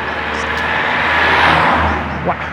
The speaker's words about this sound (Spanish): ese coche ha pasado cerca.